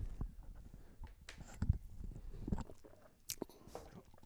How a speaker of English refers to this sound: Let me take a sip of water.